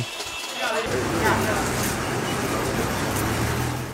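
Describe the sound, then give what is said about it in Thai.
Car horns blare continuously over dense street noise at an intersection at night, drivers honking loudly together in protest against the military coup in Myanmar, forming a steady, loud drone that starts abruptly and holds throughout, with indistinct crowd voices mixed in beneath. “บริเวณสี่แยกในช่วงกลางคืน คนที่ขับรถไปมานัดกันบีบแตรเสียงดัง ๆ อย่างต่อเนื่อง”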